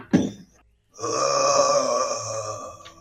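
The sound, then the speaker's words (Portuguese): A voice imitates a punch on a door: one short thump, then a brief pause and a drawn-out, throaty groan-like sound lasting a couple of seconds. “Tá, você põe a, a cabeça perto da porta, você escuta um soco na porta assim.”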